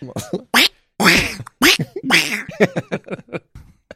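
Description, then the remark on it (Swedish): Someone imitates a duck with a run of loud, nasal quacks, several in quick succession, as a mock "Sieg Heil", followed by a scatter of shorter, fainter vocal bursts. “Kvack heil.”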